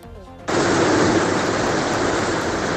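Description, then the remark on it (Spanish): A loud, steady roar of rushing water from a swollen river in high flow as it passes through Pamplona, starting abruptly after brief speech and continuing as a dense, unbroken wash of noise. “con alerta naranja por nieve en el Pirineo y con el larga, escuchen, así.”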